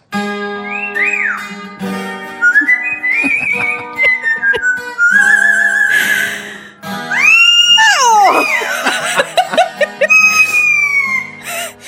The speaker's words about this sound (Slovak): ale takto to znie v podaní novej hviezdy toho papagája.